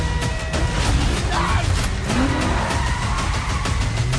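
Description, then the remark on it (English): Loud, continuous roar of racing car engines revving hard, with tires squealing and skidding across the whole stretch, dense like a high-energy action sequence, from the trailer for the film Gran Turismo. “Here's a trailer for Gran Turismo.”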